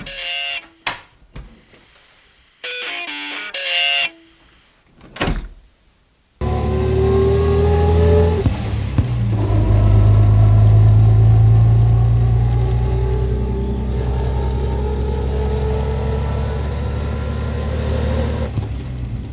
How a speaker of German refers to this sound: Harry parkt den Wagen.